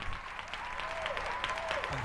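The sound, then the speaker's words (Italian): A live crowd applauding steadily in a live-style version of a song, dense clapping filling the space with faint cheers, shouts and whistles rising through it, loud and continuous for the whole couple of seconds. “Sentirete applausi, grida, urli e perfino qualche fischio.”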